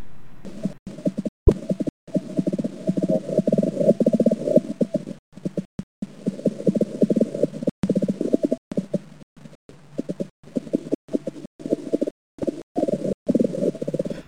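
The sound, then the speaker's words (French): A forget-me-not shield bug (Sehirus luctuosus), a bug that lives on forget-me-nots, stridulating: a continuous low, buzzy rasping drone made of rapid pulses, broken by a few brief gaps, with no voices. “Voici celle qui vit sur les myosotis et qui s'appelle Seirus luctuosus.”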